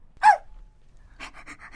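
A dog named Tori panting: one strong huffing breath, a short pause, then a quick rhythmic run of about five short pants. No one speaks.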